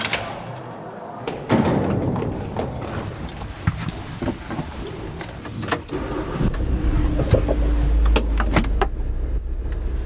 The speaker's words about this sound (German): Unter Tage ist alles riesig. Wir fahren Auto mitten im Berg. Es rüttelt und schüttelt, die Wände glitzern. Über uns, neben uns, unter uns gerade Salz.